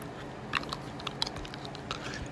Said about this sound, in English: Let me take my mouth guard out.